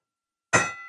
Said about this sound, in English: We haven't used the Kenny Bell in a long time.